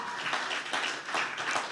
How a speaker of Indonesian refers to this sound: Tepuk tangan sekali lagi buat Tuhan Yesus. Haleluya.